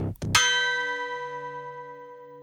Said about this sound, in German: In dem Moment erklang der Gong.